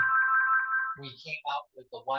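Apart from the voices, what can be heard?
mobile phone ringtone ringing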